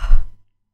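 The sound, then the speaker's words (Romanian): A single short, breathy yawn from one voice, fairly loud, fading out quickly into silence within half a second; the bunny Matei yawning at bedtime in a children's story. “a spus Matei căscând.”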